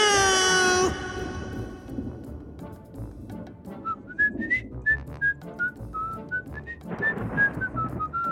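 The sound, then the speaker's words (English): A faint, distant whistled tune drifts in after a loud opening tone, a thin wavering melody rising and falling over several seconds above a low rumbling background. “A distant whistle coming from that direction.”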